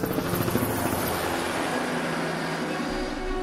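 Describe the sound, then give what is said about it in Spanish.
A helicopter's steady rotor roar fills the air, a dense continuous thrum with a faint rhythmic chop, loud as if passing overhead, with no voices. “eran tan ligeras que se podían transportar colgadas de un helicóptero.”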